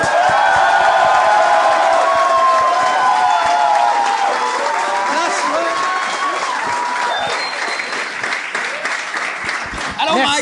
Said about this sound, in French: J'aimerais qu'on donne bonne main d'applaudissement au premier invité de ce soir, le seul, unique, Monsieur François Bellefeuille.